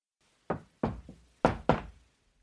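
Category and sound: household object, knocking on a door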